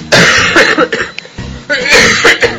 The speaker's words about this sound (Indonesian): oh, batuk lagi